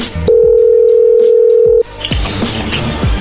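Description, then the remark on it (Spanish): A steady, unbroken telephone dialing tone as a call is dialed again holds at one mid pitch for about a second and a half, then cuts off abruptly, followed by clicks and muffled handset noise. “Bueno, ahí se está marcando de nuevo, no hagas ruido.”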